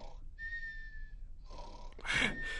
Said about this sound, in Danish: Autorepeat-knappen i bund kunne han snorke i en uendelighed.